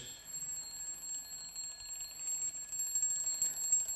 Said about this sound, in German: Und ich habe gedacht, ich lasse das jetzt mal eine ganze Zeit hier so klingeln, weil das ja so angenehm ist. Und das Tolle an diesem Wecker ist, er hat nicht mal eine Snooze-Funktion. Also wir müssen jetzt warten, bis er zu Ende ist.